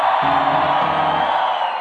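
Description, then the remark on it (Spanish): An audience lets out a loud, sustained collective shout of victory, many voices cheering and whooping together, dense, filling the space for a couple of seconds. “Quiere ver al diablo nervioso, dése un grito de victoria ahí donde usted está”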